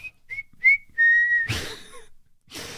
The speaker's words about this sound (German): Habt ja. ihr dabei zumindest ge gepfiffen, so wie es jeder gute Mensch macht, der irgendwas unauffällig tut?